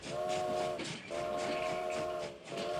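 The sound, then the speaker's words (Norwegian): A train pulls away as its whistle sounds two long, loud blasts with a short gap between them, over a steady mechanical rumble. No one speaks. “Nå går frokosttoget! Alle om bord!”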